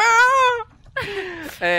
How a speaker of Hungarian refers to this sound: Egy, az matróz, akit húztak, az, az egyre távolodik lefelé a víz felé. A, a sikolya. Szomorú.